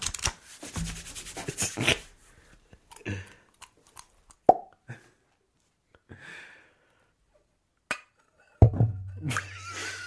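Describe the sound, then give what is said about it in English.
A microphone gets knocked and handled during live Foley: rustling and scraping, then several sharp, loud thumps, the last with a low boomy rumble. No one speaks. “Rule number one of Foley artistry: do not bang the microphone.”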